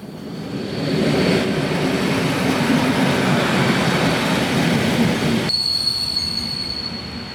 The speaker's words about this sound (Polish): Pociąg mi tutaj przerywa, no nieładnie, nieładnie. Chwila przerwy.